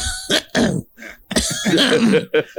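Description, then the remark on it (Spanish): A person fakes a coughing fit on a phone call while pretending to be sick to skip work, a string of loud, exaggerated coughs and throat-clearing rasps in quick irregular bursts with brief pauses between them. “Te habla y te dice que, por cierto, empieza a toser.”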